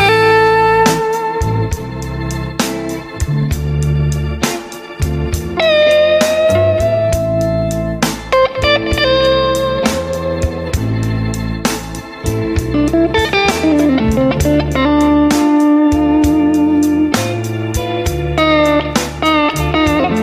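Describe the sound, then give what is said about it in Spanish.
Music plays steadily throughout with no voices, layered sustained melodic notes over a regular beat of sharp percussive hits, with a gritty, effects-laden guitar-like tone. “Se escuchan canciones, se escucha música, se escucha música de fondo acá.”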